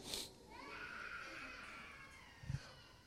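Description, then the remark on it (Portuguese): A young child cries in a faint, drawn-out wail that wavers for about two seconds, followed by a short low thump near the end. “O guri, o guri tava chorando, quando vê aquele choro foi focando assim.”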